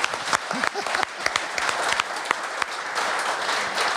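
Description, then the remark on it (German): An audience claps steadily for about four seconds, a dense, sustained patter of many hands, with a few faint voices mixed in. “erstmal einen Applaus.”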